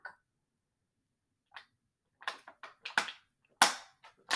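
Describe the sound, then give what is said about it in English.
Irregular popping and clicking sounds from someone drinking water, about a dozen sharp little bursts clustered together after a quiet start, with no talking. “You hear popping in the background. That's me drinking water, honey.”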